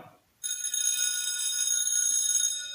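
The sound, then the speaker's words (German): A bright, metallic bell rings loudly and continuously after a moment of near silence, holding a steady shimmering tone to the end with no voices present. “ich mach die Klingel, du machst FFG und ab dafür.”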